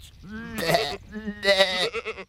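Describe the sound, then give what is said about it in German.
A goat bleats, two wavering, nasal cries in quick succession, each with a rough, quavering edge, with no talking alongside. “Abends fragte er Ziege, bist du satt?”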